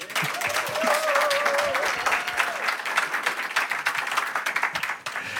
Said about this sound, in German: Sinn erfüllt Leben, das ist das, was ihr erlebt, auch in der Kids Zone. Und da freuen wir uns, da kriegt ihr jetzt einen Applaus dafür.